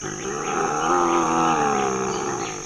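An oncilla's growl: a loud, continuous, raspy snarl with a throaty harmonic tone that swells and slowly fades over a couple of seconds, heard alone without any talking.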